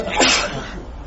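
a sneeze

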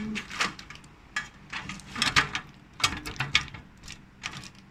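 window being closed

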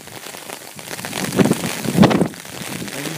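rain falling

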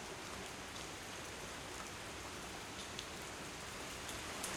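rain falling

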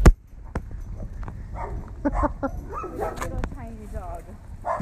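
dogs barking

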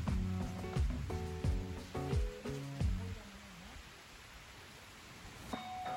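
rain falling on

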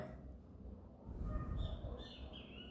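great kiskadee (bem-te-vi) calling

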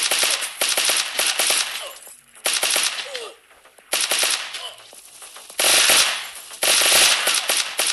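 video game gunfire

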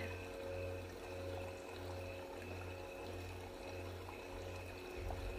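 flowing spring water

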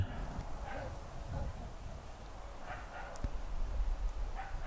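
dogs barking

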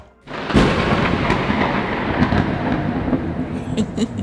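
thunder sound effect

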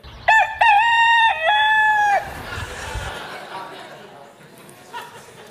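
rooster crowing

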